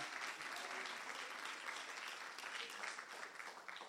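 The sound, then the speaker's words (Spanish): A crowd at a sermon claps steadily for several seconds in applause for the king, Jesus, a dense, continuous wash of applause at a strong, even level, with faint voices mixed in underneath. “Dale ese aplauso fuerte al rey.”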